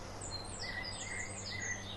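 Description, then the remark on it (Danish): Blackbird song by a roadside in summer countryside, a few fluting, whistled phrases rising and falling over a steady low rumble of rushing wind and passing cars. “Jeg sidder i vejkanten. Solsorte og fasaner og biler.”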